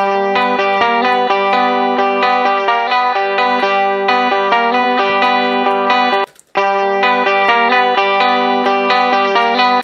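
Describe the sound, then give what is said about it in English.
A bright, jangly twelve-string guitar strums chords steadily with an EQ-shaped, slightly chorused tone, run through a Fairchild EQ with a little reverb added, briefly dropping out for a moment before the strumming resumes at full volume. “Now, I'm gonna go over to this 12 string. That sounds a little weird, so I'm gonna EQ that and make it sound a little cleaner and take out some of that low information.”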